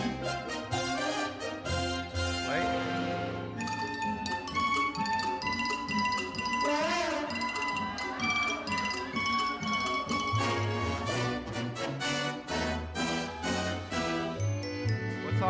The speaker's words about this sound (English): This song has been played 50 million times, and you will never be able to unhear that today, so you're welcome.